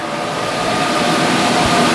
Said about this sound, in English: Now in here we have more than a thousand CPUs. This is a supercomputer. It's got its own air conditioning system and it's smarter than anybody within about five miles.